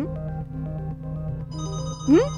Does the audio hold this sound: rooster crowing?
no